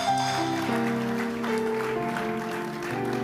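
An audience gives the Lord a clap offering during a sermon, a dense, sustained wash of hands, blended with held organ or keyboard chords that shift pitch a few times. The clapping continues throughout at moderate loudness.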